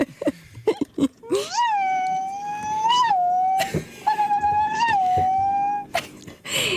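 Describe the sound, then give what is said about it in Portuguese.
A human voice imitates whimpering puppies: two long, high, wavering whines, each rising and falling, with short breathy sniffs and clicks at the start, fairly loud. “Parece uma ninhada de cães, estou a adorar.”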